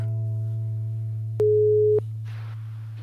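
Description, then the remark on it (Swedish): A single short phone ringback tone, a steady mid-pitched beep, sounds over a constant low electrical hum, followed by a brief burst of rustling noise. No one speaks. “då ringer vi väl Henrik och frågar helt enkelt”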